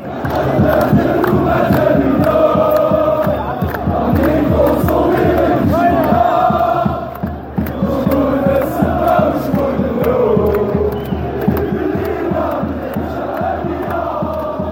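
A large crowd of street protesters chants loudly in unison, many voices blending into a steady, rhythmic roar with pulsing beats, continuous throughout, dipping only briefly midway before surging again.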